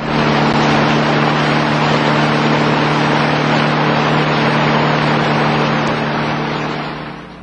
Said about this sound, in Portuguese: Antenor encostou o carro na frente de mais uma farmácia a ser visitada.